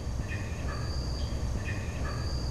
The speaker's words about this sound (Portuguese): Esse é o som de uma passagem de fauna gravada por uma câmera de monitoramento. Essa passagem é um túnel embaixo da rodovia e pelo túnel corre um caminho d'água. No começo do vídeo, dá para ver só alguns morcegos voando.